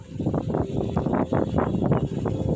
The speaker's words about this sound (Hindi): जैसे आज यहाँ ये हवा चल रही है बारिश की बूंदें हो रही हैं